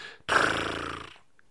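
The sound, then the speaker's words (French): A single voice imitates the rattling buzz of a snake-egg prank gadget, a plastic rod with an elastic that is released when an envelope is opened, meant to sound like a snake: one raspy, growl-like burst lasting about a second, fairly loud, then cutting off into quiet. “Genre un bruit de serpent, genre comme si j'allais avoir eu peur de ça.”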